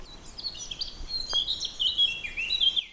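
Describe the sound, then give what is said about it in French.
Birds chirp and twitter continuously in a forest of tall cedars and larches along a walking path, with bright high-pitched calls overlapping against a soft, steady outdoor background, moderately loud, with no voices present. “C'est carrément magnifique avec le gazouillis des oiseaux.”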